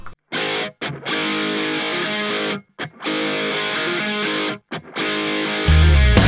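A loud rock song with heavily distorted electric guitars plays in full, punchy bursts broken by three brief stops, with a deep bass note coming in at the end; no vocals yet.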